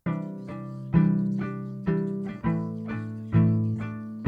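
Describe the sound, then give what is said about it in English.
Rubber bridge guitar heard through its pickup: warm, muted plucked chords strummed in a steady rhythm, each sharp attack fading quickly, played alone with no voices. “So we laid down some cool rubber bridge guitars.”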